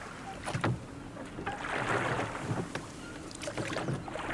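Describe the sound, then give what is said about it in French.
Water sloshing and lapping around a sailing ship, with soft creaks and a few rhythmic splashes over a steady low wash and light wind, moderate in volume. “Soudain, une voile parut à l'horizon.”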